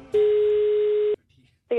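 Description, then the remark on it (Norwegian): A single long, steady telephone ringing tone sounds for about a second, followed by a short pause and then the start of a voice as the call is picked up; a phone call to a flower shop in Manglerud. “og da eh, kaller vi alltid opp ekspertene, så jeg ringte til blomsterbutikken på Manglerud.”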